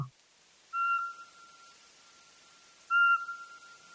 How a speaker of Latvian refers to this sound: jau februāra beigās, marta sākumā jau var pastaigāt ar tādiem mēlnākšķu mežiem un ieklausīties dienā. Jo apodziņš svilpo dienā.